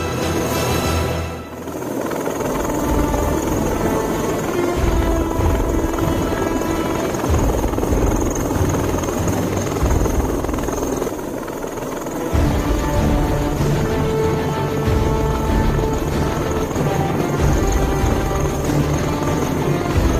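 A helicopter's rotors thump and drone steadily for the whole stretch, loud, with a constant mechanical roar and no voices.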